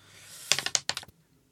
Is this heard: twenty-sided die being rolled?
yes